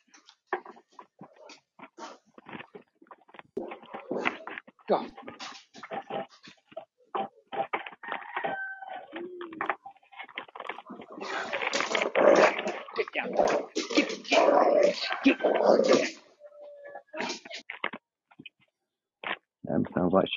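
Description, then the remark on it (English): A dog growls and snarls in rough, playful bursts while playing in the snow outside, building into a louder, more continuous stretch of growling midway before easing into scattered short grumbles. “No, he's playing because it's snow outside.”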